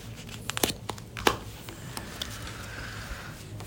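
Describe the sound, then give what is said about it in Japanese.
Crisp crinkling and rustling of a garment's accompanying paper tag, of fine paper, being handled, with a few sharp snaps and crackles early on, then softer intermittent rustles; no voices. “あとこの付属ね付属のこの紙タグはい紙タグがまた猛烈にこれ、はい、あの雰囲気がある、ね、ね、しかも紙質もなんかすげえいいねこれ紙かなあ本当だわかんない”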